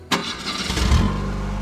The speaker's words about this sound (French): Le son des années 60. Le son, le son dont je me souviens le plus des années 60, curieusement, c'est le son de la première euh, Ford Mustang que nous avons eu à Paris